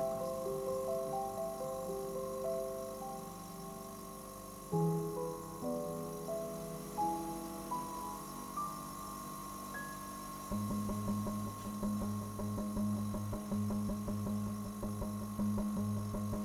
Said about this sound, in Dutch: En niet ver bij me vandaan een geruststellend gezoem. Het is de koelkast.